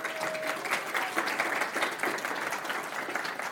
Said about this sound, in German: Applaus für meinen Engel.